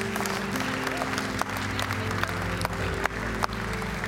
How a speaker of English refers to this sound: Would you give him a big hand clap of praise in this house?